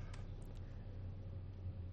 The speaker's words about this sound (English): Um, oh man, uh, uh, the truck right next to me just started up. You can definitely, I think that's my audacity's definitely picking that up.